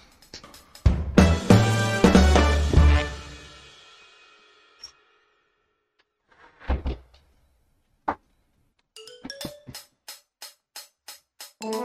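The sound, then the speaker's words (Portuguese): A kitchen door is checked and pushed shut: a loud cluster of thuds and rattles, then a few isolated knocks, and finally a quick run of light rhythmic clicks and taps. “Deixa, só deixa eu ver se a porta da cozinha tá encostada.”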